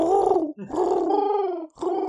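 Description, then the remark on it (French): A voice imitates pigeon cooing with three low, throaty, rolling coos: a short one, a longer drawn-out one, then a brief final one, all fairly loud and steady. “Ah, c'est les pigeons qui font.”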